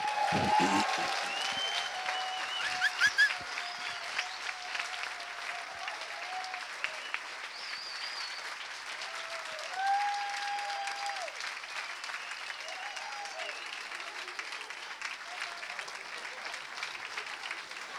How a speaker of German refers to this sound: Und jetzt wollen wir gleich mit einem großen Applaus. Hat es euch gefallen? Ja? Und das wollen wir jetzt gleich. Dankeschön.